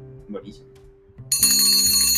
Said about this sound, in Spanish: Suena la campana, bueno, nuestros auditores yo creo que ya saben, pero cuando suena este melódico instrumento, muy moderno por cierto, es hora de hacer las preguntas random